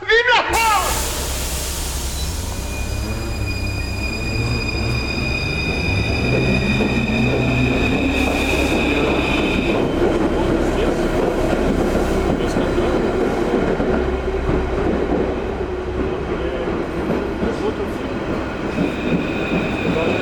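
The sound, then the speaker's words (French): A metro train rumbles loudly and steadily through a tunnel, its deep roar joined by a high metallic whine for the first half that fades out as the rumbling continues. “tous ces tunnels. tu vois, euh, ça fait des années que je prends le métro et j'hallucine toujours autant de, voir qu'il y a autant de trous sous cette ville.”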